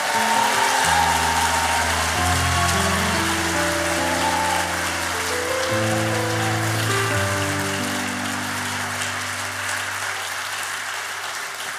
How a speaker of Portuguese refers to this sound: Are you ready for your position? Você está pronto para se posicionar? If you are, put your hands together and shout. E se você está pronto, dá um aplauso ao Senhor e dá um brado aí de vitória.